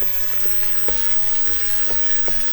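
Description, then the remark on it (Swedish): Steady, soft sizzling of frozen vegetables thawing gently in olive oil in a pan without browning, with a few faint scrapes or stirs from a wooden spoon now and then, with no one speaking. “Ska de steka på ordentligt? Nej. De ska inte bli brynta utan de ska bara, i det här fallet, tina.”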